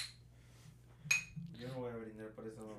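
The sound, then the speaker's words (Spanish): Glasses clink together in a toast: a faint chime at the start, then one bright, ringing clink, followed by people talking over a low background hum. “brindis, brindis.”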